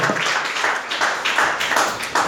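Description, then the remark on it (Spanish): A church audience applauds loudly and continuously for the Lord during a morning service, the dense clapping swelling in a loose, steady pulse throughout, with no voices rising above it. “Denle fuerte ese aplauso al Señor esta mañana.”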